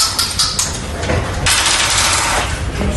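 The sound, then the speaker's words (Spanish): Dice rattle and clatter as they are rolled to break a tied election vote in Gestalgar, a quick run of sharp clicks that gives way to a continuous rolling rasp, fairly loud, with no voices. “Igual, empate en Gestalgar, pero aquí el desempate fue con los dados.”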